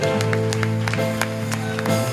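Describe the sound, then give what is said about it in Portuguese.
Scattered hand claps of applause for Jesus ring out in irregular bursts over a steady, sustained musical drone that continues throughout. “Dê uma forte salva de palmas para Jesus.”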